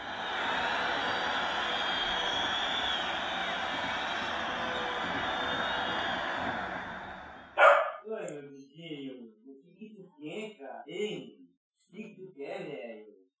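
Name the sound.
small dog barking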